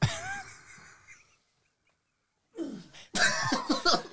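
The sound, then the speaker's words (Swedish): A man lets out strained, effortful groans while tying his shoes, with a brief silent pause before another burst of huffing, grunting breaths, fairly loud. “Gubbstönet känner jag igen.”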